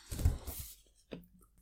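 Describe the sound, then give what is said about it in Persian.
Someone drinking water: a soft, wet burst of sipping and gulping, then after a brief pause a single quieter swallow. No one speaks. “من آب بخورم”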